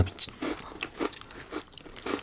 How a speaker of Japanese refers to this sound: あ、サクッという音が。うん、食べてる音が伝わるかな皆さんにしっかりとサクサクででもバターとかバターオイルかの香ばしさがすっごい鼻の中にこう上がってきまして